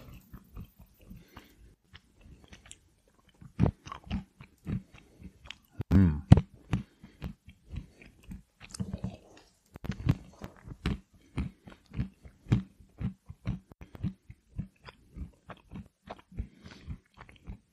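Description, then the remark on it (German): Crunchy chewing of a cashew nut, a long run of quick irregular crunches and mouth clicks, with one short hum from the person eating. “Da esse ich jetzt eine Nuss. Willst du lieber, dass ich eine Cashew oder eine Pekanuss esse?”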